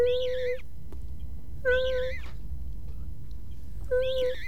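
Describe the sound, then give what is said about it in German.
Three short, high-pitched squeaky whimpers, spaced a couple of seconds apart, each a thin wavering whine heard over a steady low rumbling background. “Ein leises Fiepen.”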